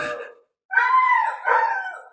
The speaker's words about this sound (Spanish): ¿Se escucha mi perro?